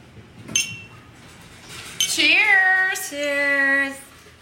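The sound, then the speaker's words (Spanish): Glasses clink together in a toast, a light tap followed by two bright, ringing chimes that hum and fade over a few seconds, with no one talking. “Cheers. Sí, no veo.”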